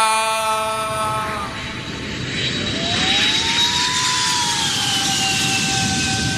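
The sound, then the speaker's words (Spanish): A jet aircraft roars on its landing approach, a steady loud rush of engine noise with high whining tones that slide downward as it passes. “Los pilotos aterrizan, vamos a buscar eso.”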